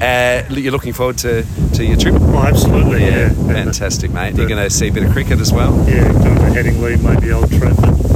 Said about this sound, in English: apologies for the wind if there's a bit of a wind tunnel. As I said, we're, it's a bit windy up here.